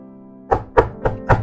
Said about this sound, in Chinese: 可恶的大野狼第三次去敲小羊家的门